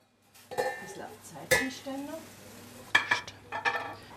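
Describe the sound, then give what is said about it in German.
Pheasant breasts, shot by the hunters themselves, sizzle in a pan of tomato sugo, with a steady hiss under sharp clinks and scrapes of utensils against cookware and a brief low murmur of voices. “In der Pfanne schmuggeln im Tomatensugo schon die Fasanenbrüstchen, ebenfalls selbst geschossen.”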